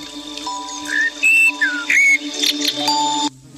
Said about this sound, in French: Ah bah, il y a le, le réveil. Réveil départ école.